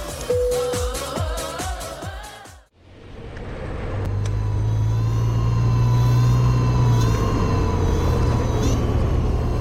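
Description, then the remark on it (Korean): A short musical jingle ends abruptly, then steady outdoor road noise takes over: engines rumbling past, a constant whooshing wash of heavy traffic as someone rides a kick scooter along a busy coastal road beside the beach in Denpasar, Bali, Indonesia. “저는 지금 해변을 따라 펼쳐진 해안도로를 킥보드로 이동 중인데요.”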